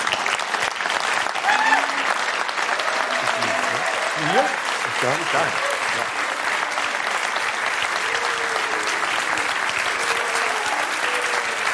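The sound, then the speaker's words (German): Sustained applause from a sizable audience as hosts come on stage, a dense steady clatter of clapping hands filling the whole stretch, with scattered voices and a few calls rising faintly through it. “wenn wir auf die Bühne kommen, sollen sie bei mir Standing Ovations klatschen und bei dir Buh rufen.”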